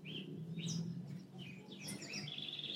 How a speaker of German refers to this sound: Noch ein bisschen das Vogelkonzert, so schön.